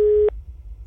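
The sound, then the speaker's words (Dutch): A single short telephone tone from an incoming phone call, steady and buzzy, sounds loudly for about a quarter second and cuts off abruptly, leaving only a faint low background hum. “Op vrijdagochtend 7 mei kreeg ik het telefoontje waar ik ja op zei.”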